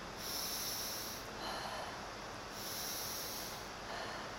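Steady breathing with airy, hissing inhales and exhales alternating in a slow rhythm, roughly four breaths with no one speaking, as a person does a rhythmic breathing exercise with one hand on the belly and one on the chest, pressing gently on the chest.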